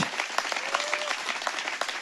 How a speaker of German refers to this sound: Und das ist doch ein Applaus wert, oder? Bravo.